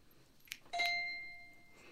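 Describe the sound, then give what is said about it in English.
A handbell is struck once with a mallet, the malleting technique, after a faint tap, giving a crisp staccato attack and a bright ringing tone that gradually fades. No one speaks. “Malleting is a is a staccato sound.”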